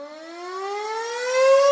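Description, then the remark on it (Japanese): A baseball-style game-ending siren wails on its own during a gourmet live variety program, one loud continuous tone whose pitch climbs steadily throughout, rich in buzzing harmonics, with no voices over it. “このサイレンが鳴ったということは本日の試合もそろそろ終了のようです”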